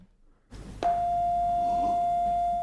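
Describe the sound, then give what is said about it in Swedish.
A single piano note sounds after a brief quiet moment, struck sharply and then held as a steady, clear tone that rings on without fading until the end. No one speaks. “Om jag spelar den här tonen till exempel.”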